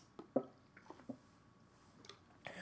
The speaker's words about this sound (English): Where's my tea? I have a latte. Hold on. We're gonna take this wizard team break to sip. To sip some something.